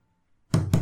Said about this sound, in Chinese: 嗯，这时候有人敲门了。